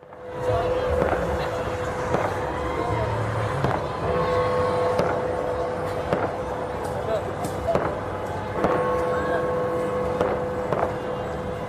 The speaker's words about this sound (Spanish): El Big Ben, suena el Big Ben entre las calles solitarias del Reino Unido.